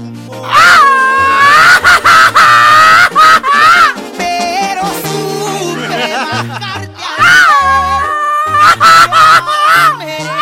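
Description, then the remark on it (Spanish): A person imitates an opossum call with loud, wavering, honking vocal squeals in several bursts over low steady background tones. “una zarigüeya.”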